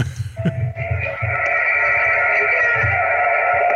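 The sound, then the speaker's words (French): A man lets out a loud, drawn-out samurai battle cry, the sound meant for a wall button and loudspeaker by the toilets. It swells quickly and then holds steady for several seconds, intense, with no talking around it. “Et quand on va appuyer sur le bouton, ben, ça va faire le bruit d'un cri de samouraï.”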